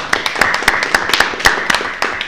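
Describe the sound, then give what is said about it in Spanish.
A crowd applauds, dense overlapping claps forming a steady, bright patter with sharper individual hand slaps popping out irregularly, fairly loud throughout with no voices. “Otro aplauso por ello.”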